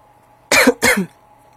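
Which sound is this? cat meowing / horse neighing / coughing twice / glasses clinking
coughing twice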